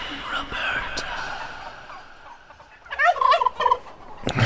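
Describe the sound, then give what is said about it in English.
A turkey lets out a loud, rapid gobbling burst of warbling, rattling calls, following a few seconds of quieter background noise. “And why is this turkey so”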